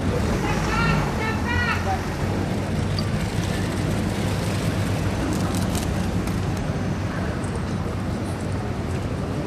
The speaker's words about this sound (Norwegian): Og så kommer bilen med valgtaper Ed Miliband ut av garasjen.